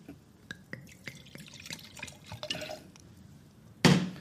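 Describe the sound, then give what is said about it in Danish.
Juice, chilled for half an hour in the fridge, pours into glasses with a series of bright drips and trickling splashes, ending in a short, louder rush of liquid; no one speaks. “Skal, vi, skal vi have noget saft? Sådan.”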